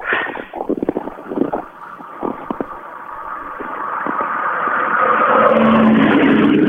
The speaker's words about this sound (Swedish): Var det 325 man? Nej, det där var en Volvo med 115, en 240 Nybe står det på den.